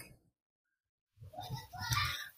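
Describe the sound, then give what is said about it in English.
After a short lull, children's voices rise in the background, an indistinct jumble of young chatter and play noise, fairly quiet. “And I hope I don't know if you can hear the kids in the background.”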